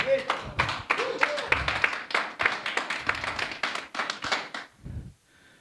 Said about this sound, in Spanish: Dale un aplauso a Dios.